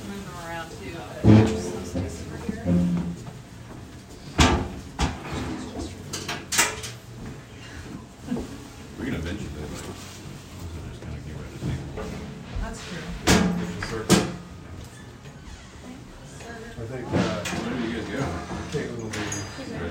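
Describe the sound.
A door shifts and bumps a few times as a woman walks around it, with sharp knocks and thuds scattered through a busy room while people talk and footsteps move around.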